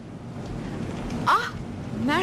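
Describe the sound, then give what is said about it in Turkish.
A steady hiss of rain falls without pause in a city, with brief bits of a voice breaking through the wash of noise. “Canım bu yağmurda ne önemi var? Sizi burada ıslanmaya terk etmem.”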